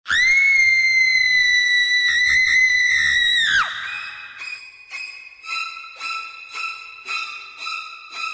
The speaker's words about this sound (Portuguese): Essa é a música Psycho de Bernard Herrmann, da clássica cena do filme Psicose de Alfred Hitchcock.